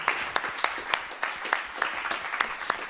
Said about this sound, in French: on peut applaudir. Merci. pour vos interventions en tout cas.